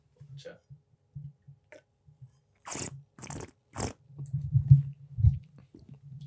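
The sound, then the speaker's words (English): A voice imitates the Minecraft drinking sound: three sharp, crunchy bursts in quick succession, surrounded by soft low hums and mouth noises. “Um, but uh, yeah, I'll just have to create the Minecraft drinking sounds for myself.”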